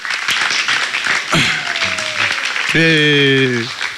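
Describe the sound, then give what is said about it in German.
A crowd applauds steadily and loudly throughout, a dense wash of many hands clapping, with a brief whooping cheer rising above it near the end. The applause is for Jesus and the band. “Wollen wir Jesus und der Band mal einen herzlichen Applaus geben?”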